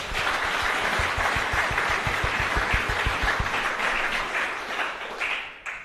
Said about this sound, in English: Can we clap hands for ourselves?